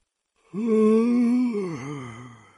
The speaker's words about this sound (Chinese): 第一个人打着哈欠走了出来。